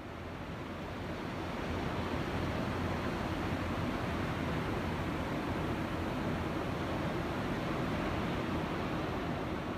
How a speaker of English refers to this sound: I, I this uh, the sound from Hawaii of the Pacific Ocean.